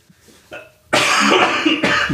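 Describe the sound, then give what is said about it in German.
A loud cough bursts out after a brief throat noise, rough and raspy, followed by a second harsh cough near the end, with no talking. “Dieses Husten bedeutet ja.”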